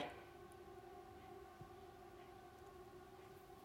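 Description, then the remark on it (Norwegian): An alarm siren drones steadily outside, a sustained, slightly wavering multi-tone wail that holds for the whole stretch at low volume, with no voices present. “Og nå er det en annen sånn alarm som går utafor her.”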